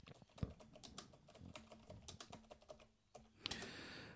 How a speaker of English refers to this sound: But let me now just start brailing on the keyboard. You can just see how sort of quiet it is.